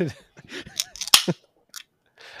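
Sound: beer can cracking open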